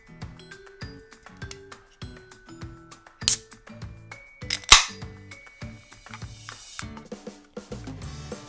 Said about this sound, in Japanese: さあ、それでは缶を開けてついていきます。まずはね、普通の黒ラベルからいきたいと思います。じゃあちょっと開けていきます。